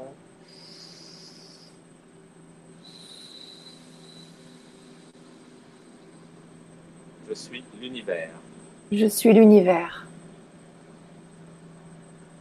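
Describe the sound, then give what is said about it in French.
A small boat passing on a river near the sea: its motor drones low and steady, humming continuously while a voice speaks softly over it and a few louder breathy sounds rise briefly. “Voilà, il y a un petit bateau qui va passer parce que je suis à côté de la mer, en fait, euh, sur la rivière.”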